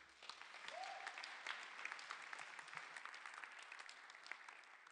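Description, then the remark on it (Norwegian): Steady, dense applause from an audience, many hands clapping at once in a continuous crackling wash that holds at an even level for the whole stretch, with a brief whistle-like tone early on. “Jeg må gi dem en skikkelig klapp.”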